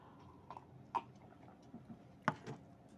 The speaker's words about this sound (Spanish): En el trabajo, ahora, primero, déjenme tomo un sorbito de, porque, ah.